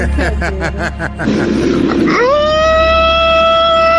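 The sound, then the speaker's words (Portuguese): A recorded howl sent in by a radio listener: a few seconds of rough, rumbling noise give way to a long howl that rises quickly in pitch and then holds a steady, loud, drawn-out tone until the end. “o ouvinte mandou um, um uivo.”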